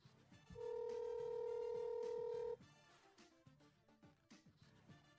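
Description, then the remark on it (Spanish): A single long electronic ringback tone sounds over a speakerphone, a steady two-note hum lasting about two seconds, loud and clear above faint background music, then cutting off. “¿Está sonando? Sí, ahí está.”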